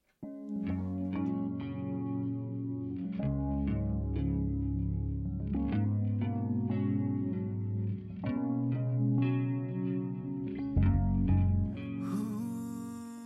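A song plays on Radio Horeb at a steady, full volume, with deep sustained bass notes under effects-laden guitar chords and a regular beat, ending in a bright wash of noisy cymbal-like sound.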